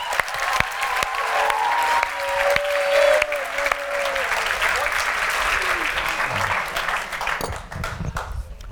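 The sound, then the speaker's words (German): An audience claps steadily for several seconds, a dense, even patter of many hands, with a few cheers and voices mixed in before the applause thins out at the end. “Applaus”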